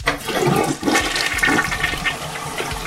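A toilet flushes loudly, a steady rushing swirl of water that stays strong for a few seconds with gurgling bursts through it, no voices.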